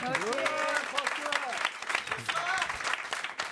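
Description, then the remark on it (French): An audience applauds the show's warm-up man, a dense, steady patter of clapping with scattered voices and cheers mixed in, loud and continuous before easing slightly at the end. “On peut l'applaudir.”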